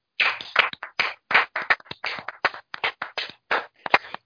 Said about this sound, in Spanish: Desde aquí nos levantamos y un aplauso para Mariano